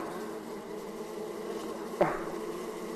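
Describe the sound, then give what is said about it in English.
A dense, steady drone of bees buzzing, continuous throughout, with a brief soft bump partway through. No one speaks. “I don't want to live in a grave of bees.”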